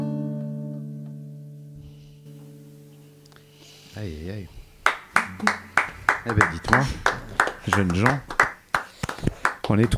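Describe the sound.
A held musical chord of a song rings out and fades, then a few people break into scattered clapping for several seconds while voices chatter over it.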